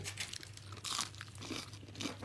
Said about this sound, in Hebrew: דווקא ההמבורגר, יש לו תחושה של בשר כשאתה נוגס בו. סליחה אה, לכל מאזיננו על רעשי האכילה שאתם שומעים.